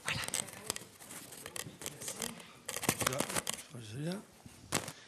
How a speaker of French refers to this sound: Tu vois qu'un photographe peut être applaudi.